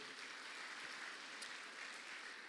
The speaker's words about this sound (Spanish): La iglesia le da palmas fuerte al Rey de la Gloria.